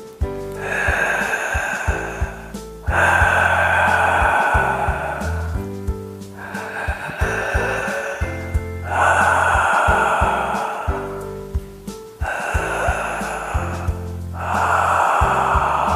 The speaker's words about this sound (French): faire ce que j'appelle la respiration Dark Vador. Alors vous allez comprendre tout de suite pourquoi, je vais vous la faire. Voilà, il s'agit d'une respiration très bruyante. Nous allons la faire ensemble trois fois.